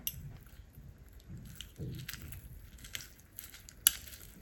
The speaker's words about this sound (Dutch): Dus ik denk dat ik eerst ei ga. Ik, ik vind het zo leuk. Ik ga het ei even kapot maken.